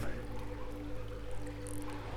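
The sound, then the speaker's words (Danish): Water trickles and splashes steadily past inside a limestone mine in Jutland, a continuous gurgling flow over a low, droning hum, with no voices. “Nu er der vand, der lige får sig forbi os her.”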